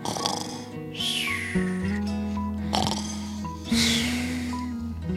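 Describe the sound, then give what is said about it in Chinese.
Loud, rasping snoring of a wolf asleep under a big tree on green grass after eating its fill: three drawn-out snores spaced about a second apart, each with a hissing exhale, over a steady low musical drone. “野狼吃饱之后，心满意足地离开了山羊家，来到了绿草地上一棵大树下，躺下身子就开始呼呼大睡。”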